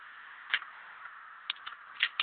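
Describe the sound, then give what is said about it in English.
A steady, high-pitched electronic drone with cricket-like chirps breaking through at irregular intervals, fairly faint and even throughout, with no voices; not real crickets but a modified sound cannon or long range acoustic device, blasted through windows. “it's just a modified version of a sound cannon or a long range acoustic device.”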